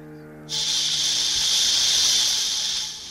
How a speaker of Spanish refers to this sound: ¿Escuchó, señora Brugel? Ese ruido lo haces tú. Es la serpiente. Está aquí conmigo, la boa de Brasil.